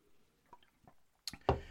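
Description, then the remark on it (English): A few soft, wet mouth clicks followed by a louder gulp as someone takes a drink of water, with no talking. “I've got, I'm drinking so much water just to keep it going during the show.”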